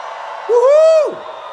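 A single loud, rising-then-falling whoop rings out from the audience for about half a second, over a steady murmur of crowd noise, a shout from audience members who have worked as colporteurs.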